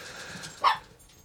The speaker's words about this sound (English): You know what, dog? Hush. I don't even know if you guys can hear that, but I should can hear, hear the uh, little dog barking.